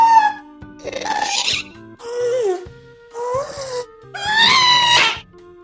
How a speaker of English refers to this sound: it is the in game sound from a, a Minecraft enemy called a ghast